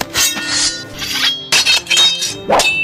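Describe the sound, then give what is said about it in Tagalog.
A knife being sharpened with about five quick metallic scraping strokes, each leaving a bright ringing tone, fairly loud with no voices. “Kaya siguro next time bago nila imbalsa yung tao na magparinig-rinig muna sila sa patay na tulad ng paghasa ng kutsilyo,”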